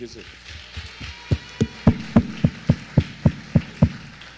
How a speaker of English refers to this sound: I want everybody to just applaud your neighbor next to you. Just give him a hand.